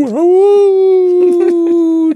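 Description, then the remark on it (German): Dogs in a film, short-haired shepherd dogs standing in for wolves, howl in a long, steady, wolf-like wail that dips at the start, then holds one loud, sustained pitch for about two seconds, with a few short rough bursts breaking in near the end. “die Wölfe oder die Mischlingshunde, die wir dann gleich kurz drauf im Bild sehen.”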